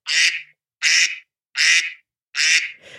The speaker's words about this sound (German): Ah, da ist er. Oh. Aha, ich finde den übrigens, äh, ich habe den jetzt unter den Alarmen gefunden. Und dann unter, unter Classic. Alarm. Ja. Ente.